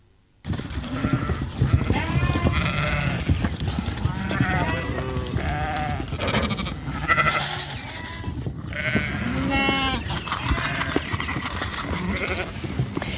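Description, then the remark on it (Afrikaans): A large flock of about 400 sheep in a farm kraal bleats continuously at feeding time as they are given maize kernels as a treat, many overlapping calls, with a busy rustle and shuffling of hooves underneath, loud and dense throughout. “so hierdie is nou eh, 'n uh, bietjie van 'n bederf vir die skape.”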